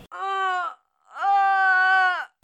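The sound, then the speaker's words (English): A voice imitates a pained groan twice: a short drawn-out moan, a brief pause, then a longer, steady one. Fairly loud, with no words spoken. “Groan is the deep, inarticulate sound made in pain.”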